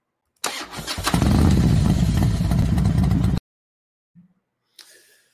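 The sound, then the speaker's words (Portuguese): As an intro jingle, a motorcycle engine starts and revs loudly for about three seconds, rumbling with dense low-end roar, then cuts off abruptly, followed by a brief soft thump and a faint trailing noise. “Passou aí a nossa vinhetinha.”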